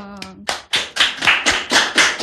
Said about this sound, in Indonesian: oke tepuk tangan dulu